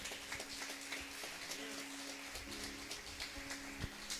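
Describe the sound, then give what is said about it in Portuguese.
An audience at a Renovada church service applauds the King of Glory in a dense, steady wash of clapping that runs the whole time, fairly loud, with a low sustained musical tone humming underneath. “Você pode aplaudir o Rei da Glória.”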